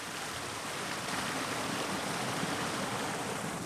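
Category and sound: nature, water flowing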